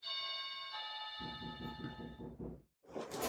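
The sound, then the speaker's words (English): A doorbell chimes with two bright ringing tones that linger and fade, while a rapid, low, rhythmic pattern starts up beneath them, followed by a short burst of noise after a brief silence. “doorbell.”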